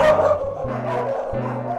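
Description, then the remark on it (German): Several dogs bark and yip in a rapid, overlapping chorus, loud, with sharp repeated calls filling the whole stretch, in the dogs' group housing area of an animal shelter. “In die Hunde-WG. Das sind die.”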